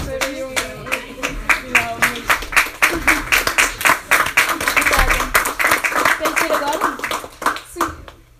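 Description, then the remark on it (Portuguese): A small audience at an event claps steadily for several seconds as the speaker finishes and thanks everyone for coming, a dense patter of hand claps rising and then thinning out, with faint voices murmuring underneath. “Tu tinhas que ter palmas aqui”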